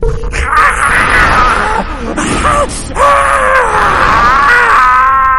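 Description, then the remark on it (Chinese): A monster struck in the head by a white arrow howls in pain with loud, strained, wavering cries, rising and falling in pitch, broken by a brief pause before a long, harsh, trembling wail that carries to the end. “怪物发出了痛苦的嚎叫，挣扎的拔下了头上的箭矢”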